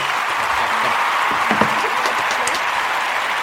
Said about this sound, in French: je crois que c'est le nouveau record de 8 points. Bravo. Oh, on remet les applaudissements. Bravo.